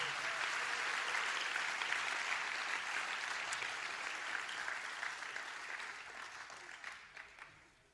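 A crowd applauds steadily, a dense wash of many hands clapping that holds strong for several seconds before gradually thinning and fading out near the end; the audience welcomes a speaker who serves as a national leader in Sweden.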